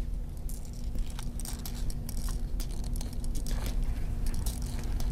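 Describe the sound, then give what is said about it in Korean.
Faint, irregular crunching and crackling of beetle larvae building pupal chambers from their saliva and droppings at an insect farm in Yongin, Gyeonggi Province, South Korea, a quick scatter of tiny clicks over a steady low electrical hum, with no voices. “그 번데기 방을 만드는 소리에서 뿌드득 뿌드득 자세히 들어보시면 소리가 들릴 겁니다.”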